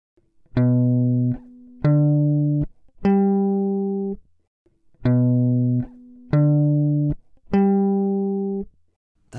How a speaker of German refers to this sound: Wenn wir jetzt einfach den Grundton des jeweiligen Akkords spielen, dann klingt das so.